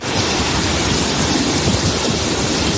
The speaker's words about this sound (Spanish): Por ejemplo, que escuchas es el río Zapardiel, que a su paso por Medina del Campo, en Valladolid, ha sufrido una crecida sin precedentes que amenazaba incluso con inundar parte del casco urbano.